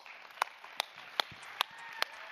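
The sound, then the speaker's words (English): A handful of sharp, evenly spaced claps, about five in a steady rhythm, stand out over a constant low hiss, sounding like sparse, thin applause rather than a full crowd, welcoming a speaker up to talk about the Spring Serve event at Kensington. “So let's get a round of applause”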